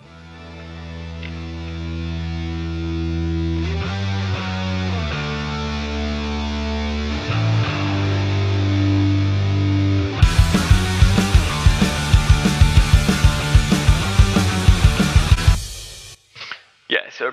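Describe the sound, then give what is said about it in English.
A sustained, buzzy synthesizer-like tone shifts through low chords, then a full band with steady pounding drums enters and swells loudly over it before stopping abruptly. “So it sort of gives like a synthesizer effect sort of sound almost. And then if we it, you can hear the rest of the band slowly come in underneath it.”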